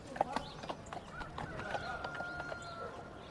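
A donkey's hooves clip-clop in a steady, unhurried rhythm as it slowly follows an elderly couple dressed in black along a hard street in a small village, with fowl clucking and calling faintly in the background.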